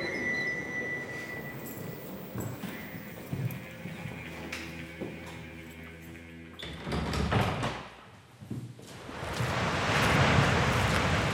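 Strong, cold gale-force wind blows in gusts, a broad rushing roar that builds and grows louder toward the end, with some creaking and knocking sounds underneath earlier on.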